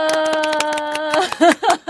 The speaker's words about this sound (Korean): 아, 예, 전혀 짜지 않았는데도 이렇게 박수를 쳐주시네요.